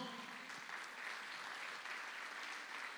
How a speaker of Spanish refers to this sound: Dele palmas al Señor.